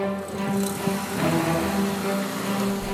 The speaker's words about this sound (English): And speaking of such a dastardly crime, a lone unmarked delivery truck is pulling up to a security checkpoint right now.